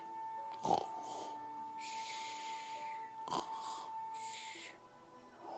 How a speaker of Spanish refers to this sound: Pero el señor Inflón seguía roncando. Incluso cuando Ulises el búho le tiró un reloj en la cabeza, el señor Inflón siguió roncando.